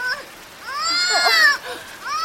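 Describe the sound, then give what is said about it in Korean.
A baby wails in high, wavering cries, fairly loud, rising and falling in pitch across a couple of seconds with a brief catch of breath between bursts. “아기를 아기를 일단 나한테 줄래요? 내가 한번 안아서 달래볼게요.”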